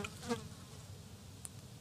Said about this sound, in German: Ist das jetzt eine Fliege? Mhm. das gibt's doch nicht.